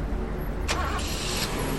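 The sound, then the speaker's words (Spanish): A car engine rumbles steadily in a restaurant parking lot, with a brief rushing surge partway through as the vehicle seems to pull off. No one speaks. “Las parejas se despidieron en la puerta y cada uno fue al estacionamiento en busca de su auto.”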